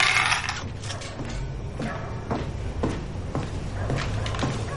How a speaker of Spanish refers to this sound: Luego, Hannah entra en su casa y cierra la puerta con llave.